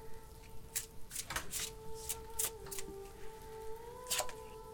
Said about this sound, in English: So I put up and I shuffle my cards and I pull the two of wands.